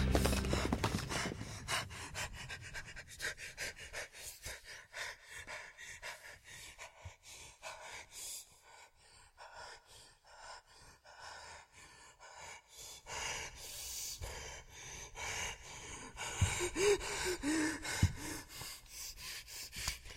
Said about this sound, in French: Je m'étais entravé, échappant de justesse à l'effondrement du couloir. Tétanisé, je reprenais peu à peu mon souffle.